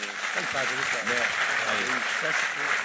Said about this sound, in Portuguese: Vamos aplaudir ao Senhor pela vida dele.